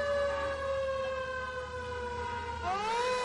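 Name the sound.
fire truck siren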